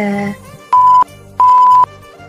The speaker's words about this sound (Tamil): நீ வாயை திறக்காதடி வாயை திறந்தாலே இப்படி பீப் போட அளவுக்கு பேசுறியடி